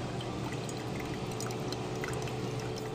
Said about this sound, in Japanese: やっぱりコーヒーはこう回し入れる今日はちょっとうまくうまくいってない